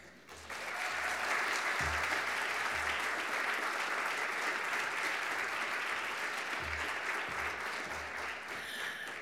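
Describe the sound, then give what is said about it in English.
Sustained applause from a large audience welcoming a speaker at a book reading event, a dense steady clatter of clapping hands that swells quickly and holds at a strong, even level for several seconds with no voices. “Please join me in welcoming”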